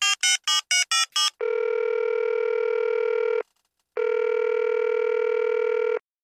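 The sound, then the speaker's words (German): A telephone call is placed: six quick dialing tones beep in a rapid burst, followed by two long, steady ringback tones separated by a short pause. No one speaks, and the tones sound clear. “jetzt rufen wir, rufen wir den Lettner Franz an. Hm, das stelle ich mal durch.”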